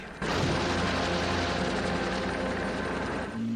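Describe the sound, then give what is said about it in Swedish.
A large Kawasaki KV-107 helicopter, lifting a car with a big magnet, roars in abruptly and stays loud, its rotor thudding in a steady rapid rhythm over a dense mechanical drone, with no voices present. “Paret ringer upp chefen för den japanska underrättelsetjänsten The Tiger som skickar förstärkning i form av en Kawasaki KV-107 helikopter som med hjälp av en stor magnet lyfter bilen och släpper den i Tokyo Bay.”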